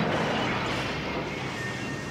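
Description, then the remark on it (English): A loud, crunching crash as Howard is flung across a room and smashes through an apartment wall after an explosion, with debris rumbling on steadily for a couple of seconds. It is full, and no one speaks. “Howard shot across the room and smashed through the apartment wall.”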